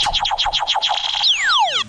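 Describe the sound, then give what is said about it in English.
A game-show wrong buzzer effect, played on a talk show to mark an answer as wrong: a rapid run of about eight warbling, downward-bending tones, then a long sliding tone whose pitches spread apart, some falling, others rising, fairly loud with no talking. “wrong, wrong buzzer.”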